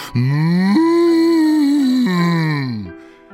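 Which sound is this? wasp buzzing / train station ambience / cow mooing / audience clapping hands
cow mooing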